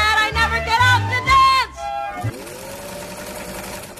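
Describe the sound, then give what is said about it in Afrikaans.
A sewing machine runs with a steady, rapid mechanical whir, even in loudness, after a brief stretch of singing at the start. “No useful sewing machine was ever invented by one man and all first attempts to do work by machinery previously done by hand had been failures.”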